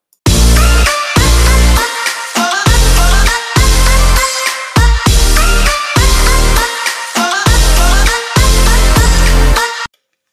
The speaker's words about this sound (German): nach einer ganz kurzen Pause, dass ihr kurz könnt verschnaufen und den tollen Jingle dürft hören.